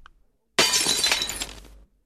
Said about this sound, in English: He had been asleep for about an hour when he was awoken by a loud noise. A window being smashed.